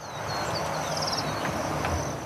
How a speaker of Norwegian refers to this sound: Fuglesangen skulle egentlig vært overdøvet av feststemte mennesker i landsbyen i dag.